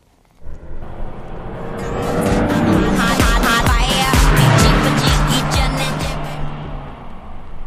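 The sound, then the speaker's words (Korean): The car in the next lane on the road speeds past with bass-heavy music blaring from it at very high volume, the roar swelling quickly and staying strong before easing slightly as it pulls away. No one speaks. “옆차가 속도를 넘으면서 휙 지나가 버렸어요.”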